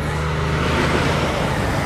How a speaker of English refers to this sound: sorry, truck, truck